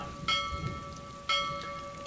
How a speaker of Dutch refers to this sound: Na dit half uur betrokken er plotseling zwarte wolken boven het Dobbemeer. Wolken werden buien en de buien werden daarna bijna een lokale storm. Er was bliksem en het meer kolkte als nooit tevoren.